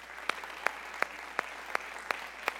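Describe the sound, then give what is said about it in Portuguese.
A standing audience claps in steady unison to applaud Jesus, seven sharp, evenly spaced claps about a third of a second apart over a low background hum, with no voices. “Será que nós podemos aplaudi-lo novamente?”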